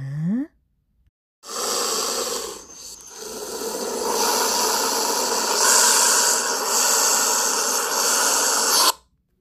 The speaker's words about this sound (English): What sound is that? Yes, it was a snake. He was too scary. I sent him back.